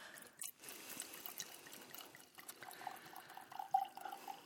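Liquid is poured into glasses, a steady splashing trickle with short bright, glassy ringing tones toward the end. No one speaks.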